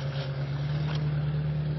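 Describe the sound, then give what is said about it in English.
A pickup truck going down an alley rumbles with a steady low drone and broad road noise, holding an even loudness throughout rather than clearly rising and fading. No voices. “oh, we got a guy going by here in a pickup truck.”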